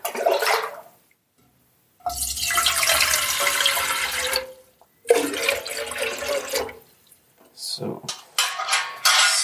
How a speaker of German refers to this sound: Mit der Schöpfkelle aus dem Eimer das Ganze rausholen.